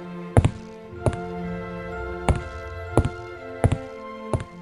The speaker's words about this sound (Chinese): 忽然听见屋顶上传来咔嗒咔嗒的声音